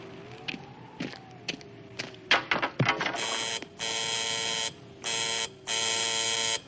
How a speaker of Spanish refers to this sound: Suena un teléfono colocado entre piedras y plantas. Todos lo miran tensos.